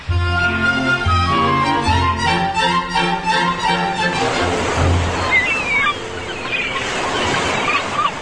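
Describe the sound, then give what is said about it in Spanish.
A few seconds of steady tonal music give way to a loud, continuous wash of surf, like ocean waves breaking and rolling onto a beach. “Hace algunos días, tía Conejo, como seguramente tenía mucho calor, se fue a cambiar de clima a la orilla del mar. Feliz andaba dando brincos por la playa.”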